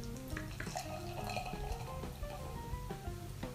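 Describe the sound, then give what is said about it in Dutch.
Beer pours steadily into a glass, a continuous splashing gurgle with fizzing and small drips throughout, fairly loud with no talking. “Oh ja, hij bruist al behoorlijk.”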